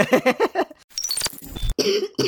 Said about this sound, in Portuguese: Pausa para tosse.